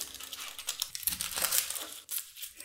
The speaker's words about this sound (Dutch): Terwijl die in de magnetron gaat pel ik een uitje.